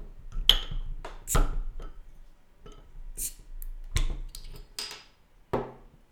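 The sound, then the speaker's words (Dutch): A bottle of hoppy pilsner-style lager beer from De Bebaarde Brouwer being opened: a series of sharp metallic clicks and clinks spread over several seconds, with brief bright hissy bursts between them and no one speaking. “Dus we maken hem open.”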